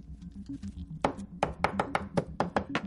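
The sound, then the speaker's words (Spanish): Repeated sharp knocks and crunches as a golden lighter pounds pills of various sizes and colours under a transparent sheet of paper, about ten irregular hits over a low steady hum, with no one talking. “Dispone un papel transparente sobre todas y las machaca con un mechero dorado.”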